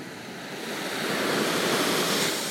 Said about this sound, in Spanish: Seguirás escuchando las olas, pues ya está contigo.